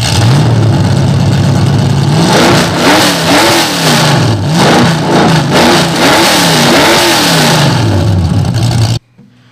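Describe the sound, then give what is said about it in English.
A loud race car engine rumbles at idle, then is revved hard several times in rising and falling bursts, with no talking, before cutting off abruptly. “Hey, without further ado, fire that mother up.”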